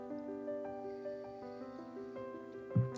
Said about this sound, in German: hätten wir noch doller die Gläser zusammengehauen, wären die gerade kaputt gegangen.